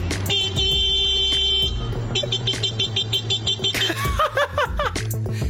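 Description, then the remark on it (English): A man imitates a car horn with his voice: a long, steady honk, then a run of shorter, wavering toots, loud, with chuckling mixed in toward the end. “He isn't being interrupted by the car, he is making yes. the car sound.”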